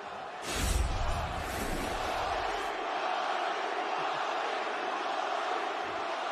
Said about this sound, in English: Bobby Green, the reaction that these fans are giving you, how satisfying is it for you to hear the cheers at this point in your career?